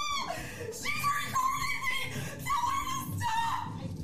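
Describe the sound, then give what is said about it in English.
A woman on the floor, recorded in a video clip, screams and wails in long, high-pitched, strained cries, rising and falling in a few drawn-out bursts over steady background noise, loud. “Uh, here's part two, where the white woman is still um, on the floor screaming.”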